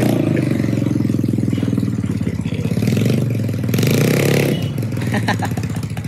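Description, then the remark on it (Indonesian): A 155cc automatic scooter engine revs loudly, its buzzing drone rising and falling in pitch over several seconds, with some mechanical clatter toward the end. “lucu nak lucu motornya bisa lucu ya teman-teman crash pemula metik Matic pemula 155 cc akan dimulai.”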